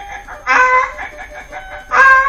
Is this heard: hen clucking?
yes